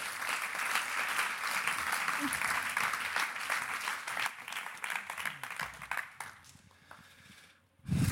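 An audience applauds steadily, a dense wash of clapping for about six seconds that then thins out and fades, with a brief burst of noise at the very end.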